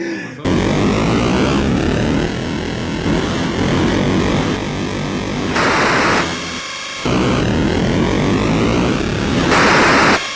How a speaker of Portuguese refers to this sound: Mas eu ia só, só, só fazendo uma observação que quantas tardes dos anos 80 que você não passava na sala da família de domingo ouvindo aquele barulho do enduro? Ah, sim, Nossa, acho que em todas as casas na época, né, cara?